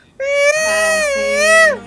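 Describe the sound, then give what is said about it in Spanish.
A voice imitates the ice-cream vendor's call once heard through someone's unmuted microphone in an online class: one long, high, nasal sustained note lasting over a second, wavering slightly and then sliding downward at the end. “Sí, yo me acuerdo que incluso una vez cuando alguien prendió el micro, se escuchaba el sonido del heladero, que sonaba como que”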